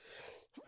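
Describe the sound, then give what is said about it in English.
A single sneeze, fairly faint: a long breathy intake followed after a brief pause by a short voiced burst, with no talking around it. “Bless you.”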